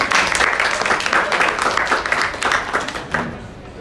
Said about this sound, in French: C'est tout C'est tout. merci, applaudissons.